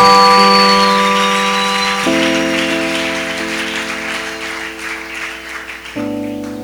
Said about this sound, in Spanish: ¿Por qué no le das un aplauso al Señor, por favor, en esta tarde? Dale ese aplauso al Señor esta tarde.